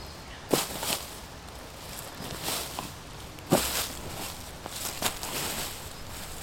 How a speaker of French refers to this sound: Au centre de la clairière, je déblaye un maximum de feuilles pour éviter les accidents.